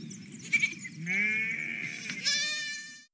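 A sheep bleats one long, wavering, nasal call that rises in pitch near the end, loud, with no other sounds around it.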